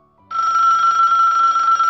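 A mobile phone rings with a steady, bright electronic tone. It starts abruptly after a short quiet moment and then holds at a constant loud level, with no talking.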